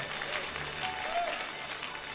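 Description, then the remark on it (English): A church audience clapping together in praise to God, a dense, steady wash of many hands that holds at a fairly even level throughout, with a faint murmur of voices mixed in. “Clap and praise Him one more time.”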